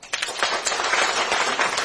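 An audience breaks into steady applause for the Kennedy family, a dense crackle of many hands clapping at once that swells quickly and holds at an even, fairly loud level throughout, with no voices.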